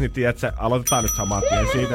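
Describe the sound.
A bright, high bell-like signal tone rings once and keeps sounding as a thin sustained ring, partly masked by a man talking continuously over it.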